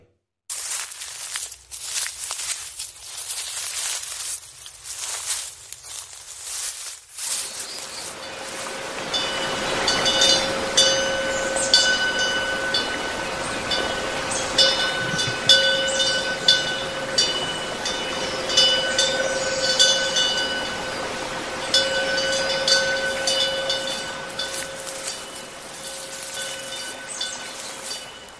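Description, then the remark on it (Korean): Footsteps crunch through fallen leaves in a quick, irregular rhythm of dry, crackly steps for several seconds, then give way to a steady hiss with a faint, sustained high-pitched tone. No voices. “오늘의 소리는 낙엽 밟는 소리였습니다.”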